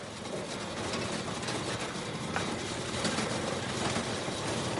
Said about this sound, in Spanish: circulan con la moto por un camino de tierra.